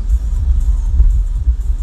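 A steady low rumble of road traffic, like cars passing, with a continuous engine drone and no voices.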